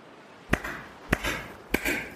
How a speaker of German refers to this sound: Das Klatschen halt gespenstisch über das Deck.